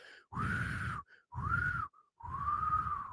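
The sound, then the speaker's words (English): Three breathy, strained bursts from someone trying and failing to whistle. Each push of air carries only a wavering, hoarse tone mixed with a grunting rasp, fairly loud, with short pauses between. “I can't whistle. How am I supposed to attract a mate?”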